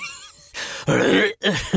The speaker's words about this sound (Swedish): Jag kan inte heller, jag hörde min harkling och jag bara, äh, vi tar inte om det där.